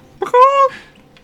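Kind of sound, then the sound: vocal imitation, voice imitating a chicken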